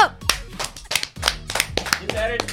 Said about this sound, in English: Clap it up! Clap it